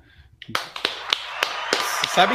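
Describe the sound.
A short round of applause: a handful of sharp, irregular claps ringing out over a couple of seconds, with a voice briefly audible near the end.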